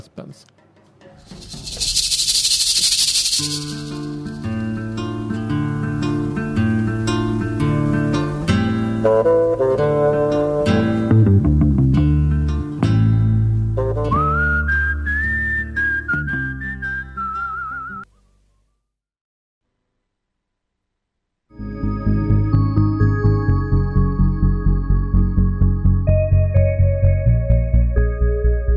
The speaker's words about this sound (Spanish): Este, así que bueno, vamos a escuchar el tema de este, La llamaban Trinidad para homenajear a Terence Hill